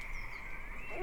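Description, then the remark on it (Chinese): Frogs croaking at night in a steady, continuous chorus, a buzzy mid-pitched trill that holds evenly throughout and swells a little louder right at the end. No voices. “于是猪小弟一整晚都没有睡觉，只有青蛙呱呱地叫着，在夜里陪伴着他。”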